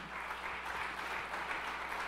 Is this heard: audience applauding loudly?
yes